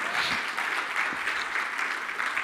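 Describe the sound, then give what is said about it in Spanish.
A church audience breaks into loud, sustained applause, a dense wash of many hands clapping steadily throughout with no pauses, enveloping. “Vamos, dáselo fuerte.”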